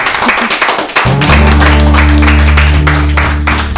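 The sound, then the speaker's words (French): An audience breaks into steady applause, a dense wash of many hands clapping that holds loud throughout, joined after a second by a low sustained hum or musical drone underneath. “Allez, on peut applaudir en tout cas.”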